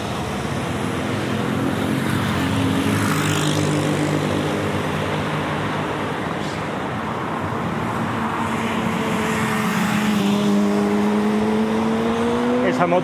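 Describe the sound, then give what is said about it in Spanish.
A steady roar of fast highway traffic in the morning, with cars and motorbikes whooshing past at full speed on both the left and the right, engine pitches rising and falling as they speed through, continuous for the whole stretch. “segundo carril y luego te pasan los coches y las motos a toda velocidad por la izquierda.”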